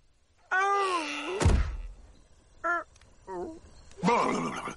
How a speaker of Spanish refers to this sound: El lobo llega corriendo ante los amigos. Duke del susto se cae de espaldas y después lo hace el lobo.